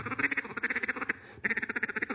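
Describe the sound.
A rapid, rhythmic string of quacking chatter from a duck call blown as a feeding call, two fast bursts of clucking notes separated by a brief pause, loud with no talking.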